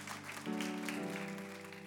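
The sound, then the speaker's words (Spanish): An audience applauds the Lord in a dense, continuous wash of clapping at steady volume, with sustained low musical tones, like a keyboard or organ holding chords, underneath. “Denle un aplauso al Señor porque Él es bueno.”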